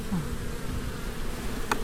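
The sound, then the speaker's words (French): A steady, dense hum of about 2,000 honeybees buzzing around an open hive about 20 cm away, a continuous droning swarm sound with a brief sharper rustle near the end. “Je me suis jamais retrouvé à 20 cm de, 2000 euh, abeilles.”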